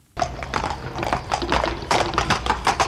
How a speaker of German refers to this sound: Ein vorbeigaloppierendes Pferd müssen Sie nicht sehen, um es zu erkennen.